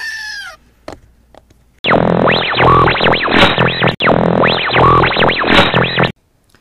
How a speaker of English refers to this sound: Yeah, I don't know how many screaming goats there are.